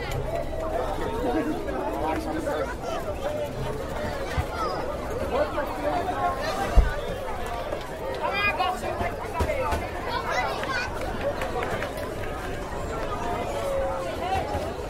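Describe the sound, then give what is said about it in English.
A dense crowd chatters continuously, many overlapping voices blending into a steady babble that fills the whole scene, with no single voice standing out. “You can hear that crowd from here.”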